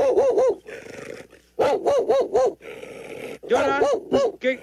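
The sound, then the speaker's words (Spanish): A cocker spaniel barks loudly in quick bursts of three or four yelping barks, with brief pauses between each volley. “¿No pediste música de este tipo? que los ladridos de la puca de Pancho. del cocker.”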